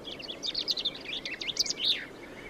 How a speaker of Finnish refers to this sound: Peipon laulu kannattaa opetella tuntemaan, sillä peippo on Etelä-Suomen runsain lintulaji. Laulua kuulee kaikkialla, metsissä, teiden varsilla, puistoissa, pihoilla, järvenrannoilla, jokien varsilla.